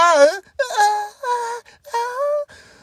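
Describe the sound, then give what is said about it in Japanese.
A voice imitates a karaoke singer who began in too high a key and cannot reach the chorus: a strained, high falsetto wail in four drawn-out bursts with short breaks, pitch wavering and cracking. The final burst drops into a weaker, breathier tone, falling back to chest voice. Fairly loud. “あの、カラオケで頑張って歌っちゃった人のがさ、もう最初から高いキーで歌いすぎちゃって、もう、サビ声で出なくて、ああ、”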